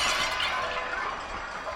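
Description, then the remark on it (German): A weathercock, blown off a roof by the wind, falls into a graveyard and smashes into many pieces: a loud, bright shattering crash, a dense burst of crackling, tinkling fragments that continues steadily for nearly two seconds without any voices. “He smashed into a million pieces”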